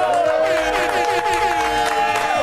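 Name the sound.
audience applause and cheering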